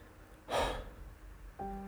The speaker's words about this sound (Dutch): Van zodra de piano op het gras komt, gaat het moeizamer. Ik duw nog harder. De temperatuur buiten ligt rond het vriespunt, maar ik zweet mij kapot ben buiten adem.